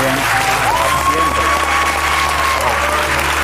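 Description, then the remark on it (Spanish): A crowd breaks into steady, dense applause that carries on loudly for the whole stretch, many hands clapping together with no pause, and a faint sustained tone rising above it. “Cumplimos, metimos todo lo que teníamos que rodar, habiendo empezado, con, habiendo palmado tres días y medio, o sea que el equipo de la Casa de Apple que estuvo ahí se merece un aplausaco.”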